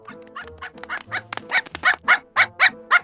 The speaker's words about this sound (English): Oh, that is one angry little dog. Calm down there, buddy. Don't get near it. These chihuahuas are deadlier than shark infested water.